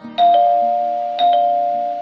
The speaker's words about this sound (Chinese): 有一天，她正和妈妈在厨房里喝下午茶，突然门铃响了。